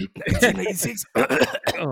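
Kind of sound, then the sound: human body sound, cough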